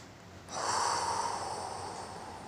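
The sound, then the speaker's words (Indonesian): A single long, breathy exhale after a deep breath in, starting abruptly and slowly tapering off over about two seconds, with no talking. “Coba deh, tarik napas dalam-dalam, lalu keluarkan.”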